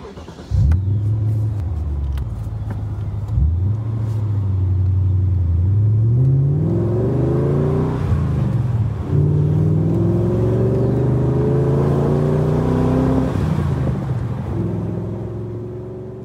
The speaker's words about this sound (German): Und ich würde sagen, wie sich so ein Z8 dann im echten Leben anhört, das testen wir jetzt kurz mal akustisch aus.